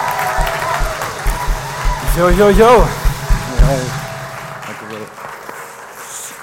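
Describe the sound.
Steady audience applause forms a dense, crackling wash throughout, with a man's voice calling out and speaking over it midway before the clapping thins toward the end.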